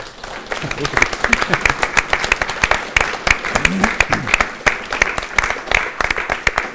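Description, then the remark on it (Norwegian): An audience at the end of a meeting applauds in thanks, many hands clapping in a dense, continuous patter that holds at an even level for several seconds, with faint murmuring voices underneath. “Så da tenker jeg vi bare sier takk, alle sammen, med en applaus.”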